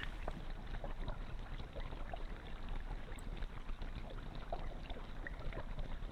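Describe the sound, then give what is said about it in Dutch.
Gentle waves of the Mediterranean Sea lap steadily, a continuous soft wash dotted with small splashes and trickles, with a faint breeze in the background and no voices. “En verder hoor je helemaal niets, alleen maar het geluid van de golven, het kabbelen van het water.”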